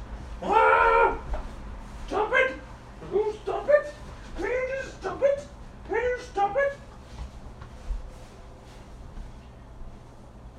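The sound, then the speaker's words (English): A female dog trying to eat a couch gives a run of short, sharp barks and yelps while her owner shouts at her over the top; the noise dies down by the end. “All right, you're going to hear me yell at this dog.”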